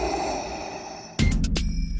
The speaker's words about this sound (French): Ça me dit quelque chose, cette respiration, ah.